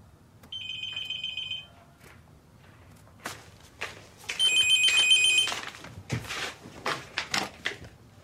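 A telephone rings twice, each a bright, buzzing trill lasting about a second, with a pause between. Sharp knocks and shuffling clatter surround the second ring. Nobody speaks.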